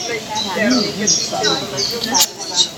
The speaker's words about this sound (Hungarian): Csicseregnek a madarak.